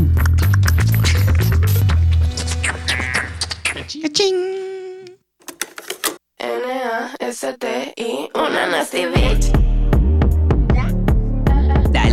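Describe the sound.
A loud pop song with a woman singing over a thumping bass beat; the beat drops out midway for a sparser vocal break, then returns full force.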